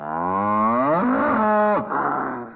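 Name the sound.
cow mooing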